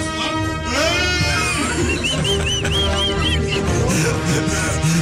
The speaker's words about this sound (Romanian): Caprele care leșină, știi?